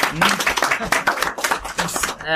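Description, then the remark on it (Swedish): A short burst of audience clapping in applause for having drunk margaritas: a dense patter of hand claps lasting a couple of seconds, fairly loud and steady, with voices mixed in underneath. “ah applåder för det!”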